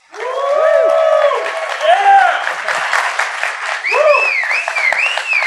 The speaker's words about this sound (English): But how's about we go for a big round of applause for,